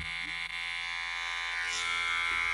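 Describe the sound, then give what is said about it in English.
An electric beard trimmer buzzes steadily as a beard is trimmed, a continuous bright whirring drone that holds at an even level throughout with no pauses. “No, I thought I was uh, just trimming my beard.”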